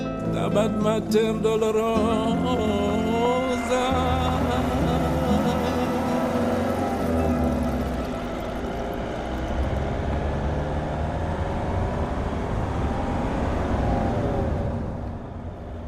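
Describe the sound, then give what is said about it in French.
A chestnut-coloured Citroën C3 car driving away from Évora, its engine and road rumble forming a steady, continuous drone, with faint musical tones fading out in the first seconds. “Nous quittons Évora à bord d'une Citroën C3 à la robe châtaigne.”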